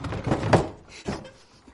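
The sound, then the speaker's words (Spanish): A chair set down against a door by a mother who then sits on it: a few dull wooden knocks and a brief scrape, fairly loud, with a softer thump after a short pause and no voices. “Coloca una silla ante la puerta y se sienta.”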